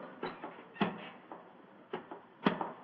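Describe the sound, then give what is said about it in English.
A door up in a gallery opens with a series of wooden clunks and latch rattles, several sharp knocks spaced irregularly over a few seconds, moderately loud, with no voices. “Look up there in the gallery. The door's opening.”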